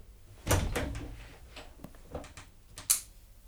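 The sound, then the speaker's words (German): The left door is opened with a solid thump and a rattle of its latch, then shut again a couple of seconds later with a sharper knock, with no voices. “Die linke Tür.”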